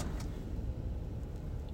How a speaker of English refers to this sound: Um, in the car again. Oh, I hope it's not loud. Okay, hold on.